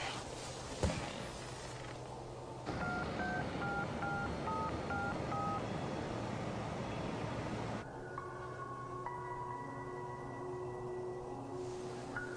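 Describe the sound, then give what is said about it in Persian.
A phone number is dialed: around eight short, even keypad beeps over a low steady hum, then a stretch of sustained electronic line tones. No one speaks. “این تلفن منه میشنوی؟”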